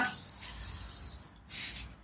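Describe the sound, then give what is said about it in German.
Water runs and gurgles as a small rubber toy duck is filled, a steady splashing hiss that breaks off briefly, then surges back for a moment before fading. “Wenn du sie befüllst mit Wasser.”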